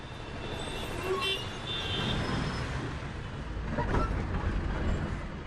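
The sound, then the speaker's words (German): An old Ambassador taxi rumbles, rattles and clatters steadily, its rough engine noise mixed with busy street traffic and a few short horn toots. “Sein Taxi, der Ambassador, ist nicht mehr der schönste. Aber Liebe macht blind, in diesem Fall auch taub. Er poltert, rattert, klappert.”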